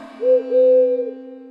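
A pigeon coos once, a soft, low, wavering call stretching just over a second, moderately loud, with a steady low drone underneath and no voices.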